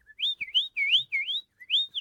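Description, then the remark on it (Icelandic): A person whistles in imitation of a small bird: five or so quick, sliding chirps rising and falling in pitch, clear, with no talking. “Ég var að flauta svona eins og fugg Já, og þau sem sagt heldu að þetta væri fugg”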